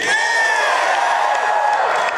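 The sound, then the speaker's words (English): A large crowd at the White House cheers loudly and steadily as Joe Biden signs the Respect for Marriage Act, a dense wash of voices with scattered whoops rising above it, sustained without pause for about two seconds. “Here's Joe Biden today signing the Respect for Marriage Act before a large crowd at the White House.”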